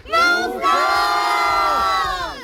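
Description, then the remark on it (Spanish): A group of voices shouts together on a count of three, calling others to come, in one long, loud, sustained cry, rising sharply at the start and holding steady for about two seconds before trailing off. “Otra vez más fuerte, ¿vale? Nos tienen que escuchar en OG y allí en Churriana, ¿vale?”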